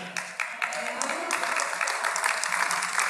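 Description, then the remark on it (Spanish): An audience applauds steadily in praise of the Lord, a dense crackle of many hands clapping at a moderate level for about three seconds, with a low murmur of voices underneath. “Dele ese aplauso grande al Señor.”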